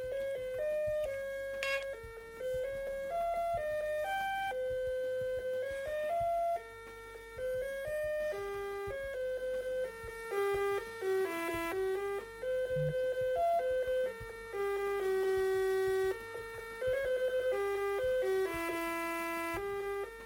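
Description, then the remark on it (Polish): A thin, tinny electronic phone hold melody plays steadily and very quietly through a telephone speaker, stepping through simple single-note tones in a repeating tune, with no talking over it. “Bo, no, powiem jeszcze taką rzecz, że ten hold jest tam, ta melodyjka hold jest troszkę słyszalna przez głośnik telefonu.”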